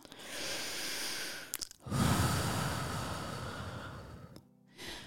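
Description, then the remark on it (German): A long, deep breath drawn in, a brief pause, then a slow, breathy exhale, with no talking. “So, wir schließen jetzt alle mal die Augen und atmen ganz tief ein und wieder aus.”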